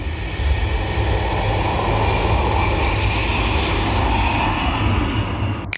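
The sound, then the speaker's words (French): A jet engine roars loudly and steadily, a dense, rumbling wall of noise with a hissing high end that holds constant throughout, overpowering, with no voices. “Vivez pleinement l'action de la chute d'une épingle au vrombissement d'un moteur à réaction.”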